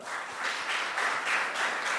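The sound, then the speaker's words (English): A burst of group applause, many hands clapping in a dense, steady crackle for a couple of seconds with no voices over it. “Applause for her.”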